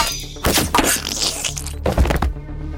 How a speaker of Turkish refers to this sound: Brett gizlice arkasından yaklaştı ve arbaletini yakın mesafeden ateşledi.